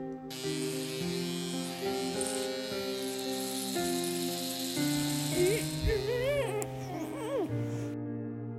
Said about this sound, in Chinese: 每次去理发店，阿姨拿出剪刀或是理发器的时候，他都感觉很害怕，因为剪头发一动也不能动，不然可能就会剪到脸上嫩嫩的肉。他也很讨厌理发器的声音，